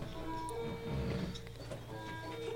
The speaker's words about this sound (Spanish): Ese sillón, no me estoy tirando pedos. Sí, los sillones hacen ruido, eh, no, juro que no estamos tirando los pedos.